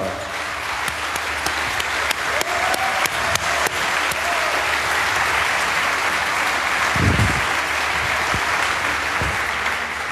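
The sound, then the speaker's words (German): An audience claps steadily for about ten seconds to welcome guest Julia Reda onto the stage, a dense, sustained wash of many hands, with a few sharper individual claps standing out and no talking over it. “Ein Applaus für Ein Applaus Julia, Julia Reda.”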